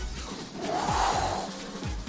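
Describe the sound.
A voice imitates a person snorting through the nose like a bull while eating, pushing out forceful, breathy huffs of air with rough, rasping edges, loud throughout.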